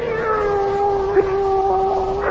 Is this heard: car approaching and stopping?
no